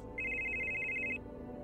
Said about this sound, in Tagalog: Kinabukasan, nagising po ako sa malakas na pagriring ng cellphone ko.